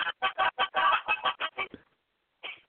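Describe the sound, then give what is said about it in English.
A tinny musical birthday greeting card plays the chicken dance tune as a quick, bouncy string of about ten clucking-like bursts, then falls silent briefly before one more short blip. “It's a chicken dance.”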